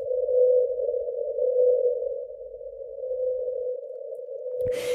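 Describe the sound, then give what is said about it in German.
A whale song recorded by the US National Oceanic and Atmospheric Administration, played back at ten times its original frequency: one steady, unwavering mid-pitched tone drones for nearly five seconds, then cuts off into a brief burst of noise. “Allerdings, wenn man den Gesang mit zehnmal höherer Frequenz abspielt, äh, damit man dann eben auch was hört.”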